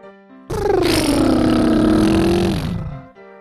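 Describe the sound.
A single sustained lip trill on an exhale, a voice buzzing its lips to mimic a car engine's hum as a breathing exercise while kneeling on a bed, steady for about two and a half seconds before trailing off, with a faint background tone.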